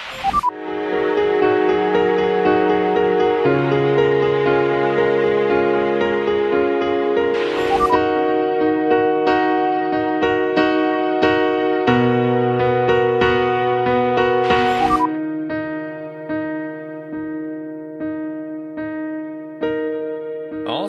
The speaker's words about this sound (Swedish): Så där lät det när jag var också 15 år och precis hade lärt mig fem ackord och fått garageband för första gången.